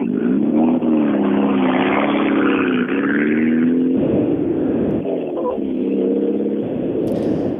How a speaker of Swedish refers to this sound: Ja, det, det, det, är ju något visst med det här Mitsubishi-ljudet när han rullar iväg. jag, vet, eh, jag vet att du, du, är svag för vissa ljud och det här är ett av dem.